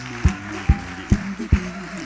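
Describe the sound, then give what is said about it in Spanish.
Four sharp, evenly spaced claps ring out in a steady rhythm, like an audience clapping in unison, with a low sustained tone humming underneath. “Vamos a darle un gran aplauso a Dios.”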